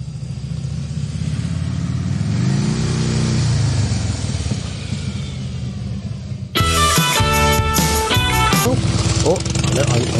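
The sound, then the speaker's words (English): A motorcycle engine rumbles loudly for about six seconds, its pitch swelling and dropping with a rev, before cutting off abruptly as music begins. “sorry, I killed the motorcycle.”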